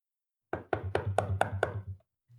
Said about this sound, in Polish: I słyszycie w pewnym momencie stukanie do drzwi.